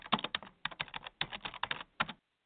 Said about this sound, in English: And join our newsletter. Just a couple of clicks and a little bit of typing.